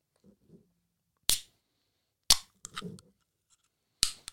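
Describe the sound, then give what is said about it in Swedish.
The lid of a sturdy tin can is snapped open with force: three sharp, loud metallic clicks spaced irregularly, with soft rustling and handling noise between them and otherwise quiet. “Tänkte du på vilken robust burk det var sen när du öppnade den? Man behövde Ja. ta i för att knäppa den liksom.”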